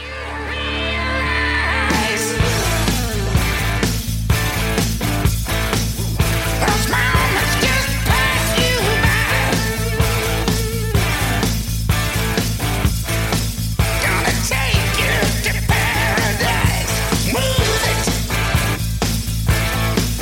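A hard rock song plays loud and dense, with a brief low intro before pounding drums and heavy distorted guitars kick in and drive steadily throughout, no voices talking over it.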